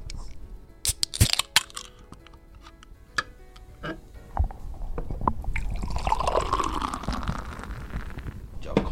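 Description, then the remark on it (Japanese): A can of Kirin Free non-alcoholic beer snaps and hisses open with sharp clicks, then the beer pours steadily with a rising, foamy gurgle as the glass fills, clear. “まずは開けてもいいですか、はい、この缶どうぞどうぞ いやではいただきます”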